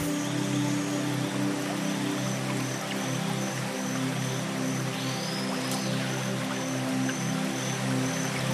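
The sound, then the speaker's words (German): A steady, dense roar of rushing water from a gigantic jungle waterfall fills the scene at a constant loud level, heard up close, with faint high chirps of birds or insects threaded through. “Schließlich wird das Rauschen immer lauter. Die anderen Geräusche des Dschungels treten in den Hintergrund und vor dir türmt sich ein gigantischer Wasserfall auf.”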